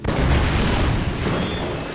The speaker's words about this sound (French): Avant d'atteindre leur véhicule, une énorme explosion les soulève de terre et les envoie valser.